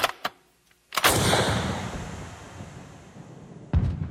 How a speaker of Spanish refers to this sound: En el sueño, el estruendo exagerado del disparo lo despertó.